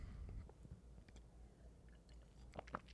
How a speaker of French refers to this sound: Prendre une petite gorgée d'eau.